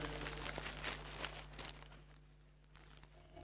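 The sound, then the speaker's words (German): Someone rummages through a plastic bag looking for a sponge they brought, producing steady crinkling and rustling with small crackles, fairly soft, easing off slightly toward the end. “Das erste, was ich mitgebracht habe, wenn ich es denn finde in meiner Tüte”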